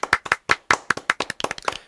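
A small group claps for a couple of seconds, starting as a few distinct sharp claps that quickly thicken into overlapping, uneven applause. No voices are heard.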